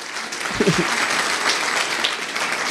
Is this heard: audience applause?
yes